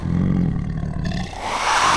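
A loud animal roar lasting about two seconds, starting as a deep rumbling bellow and rising into a higher, strained snarl at the end, with no voices.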